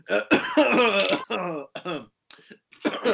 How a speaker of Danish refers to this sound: Øh. Nå, vi, øh, vi hoster os selv ihjel.